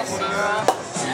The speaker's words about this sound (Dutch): Maar dat klinkt ongeveer zo. Mensen kunnen dat niet zien, maar wel horen. Er ging net een oude geuze open. Met een hele goede knal. Fantastisch.